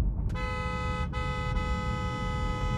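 A red truck's horn blares in one long, sustained honk, loud, with a deep rumble of road and engine noise underneath, on a highway late at night.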